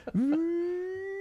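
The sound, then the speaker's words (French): A voice imitates an electric car's accelerating whine: a steady hum that sweeps upward quickly, then levels off and holds for about a second. “j'attends euh, la voiture électrique, hein, avec, euh, peu importe laquelle, hein, je m'en fous si c'est une Tesla machin, mais où là je vais pouvoir accélérer et entendre”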